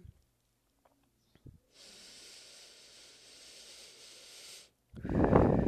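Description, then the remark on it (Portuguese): A long, steady breath drawn in with a soft airy hiss for about three seconds, followed after a brief pause by a forceful, louder exhale, as part of a breathing exercise. “respira novamente e solta.”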